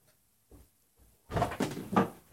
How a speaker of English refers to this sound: Well, sorry for the cat paws. That's, uh, boy, is that, I think that's editable.